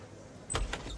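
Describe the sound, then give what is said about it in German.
A café door in San Francisco opens as a man enters, with two quick, rushing swishes close together, breaking a quiet room-tone background. No one speaks. “Ein lässig gekleideter Mann mit rötlich blondem Haar und athletischer Statur kommt herein.”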